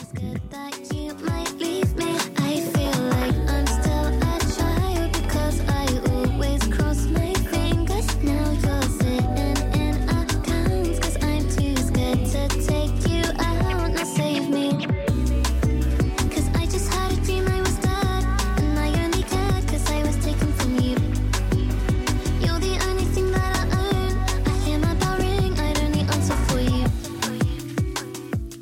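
A pop song plays loud for nearly half a minute, driven by a steady beat and deep bass with layered melody, briefly thinning out midway before ending abruptly, with no talking.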